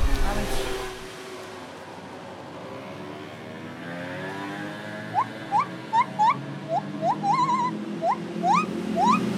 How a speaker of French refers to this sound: Ça me dérange la moto.